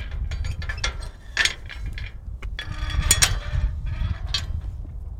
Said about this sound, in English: You want to, you want to listen to the squeaky door? Sure. Gate.